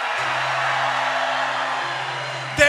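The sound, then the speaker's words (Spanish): An audience shouts for joy together in one loud, sustained roar of many voices, with a steady low hum underneath and a brief sharp burst right at the end. “¿Qué tal si vamos ensayando un buen grito de alegría?”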